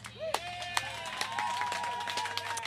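A short round of applause: scattered sharp handclaps at an uneven, quickening pace, with a sustained high whoop or cheer riding over a low steady hum.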